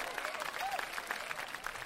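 An audience at a comic poetry gathering claps steadily as the first poet is introduced, a dense, continuous wash of many hands with crisp individual slaps scattered throughout. A brief rising tone briefly rises over it partway through.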